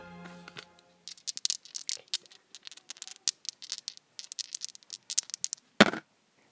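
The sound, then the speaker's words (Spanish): Dice rattle and clatter in a rapid, irregular string of sharp clicks for several seconds, ending with a louder knock as they settle. A brief tone sounds at the very start. “Es momento de lanzar los dados y cayeron en”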